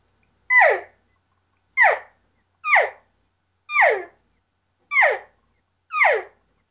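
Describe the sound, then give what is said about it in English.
A voice imitates a calf call with six short, high-pitched mews, each a quick falling bleat, repeated at a steady rhythm with brief silences between them. “Um, you know, if a guy wants to do calf calling, it's more of a shorter, higher pitched.”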